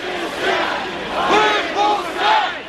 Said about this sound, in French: Honte crie la foule qui poursuit le convoi qui emporte Alexis Navalny.